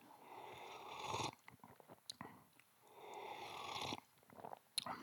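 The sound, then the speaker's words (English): Someone takes two drawn-out, airy slurping sips of tea, separated by a short pause with small clicks and faint handling noises. “I'm just going to take a sip of tea.”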